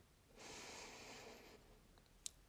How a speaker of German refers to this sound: Wir schließen das rechte Nasenloch, indem wir den Daumen, äh, Druck auf den Daumen geben und atmen durch das linke Nasenloch langsam ein.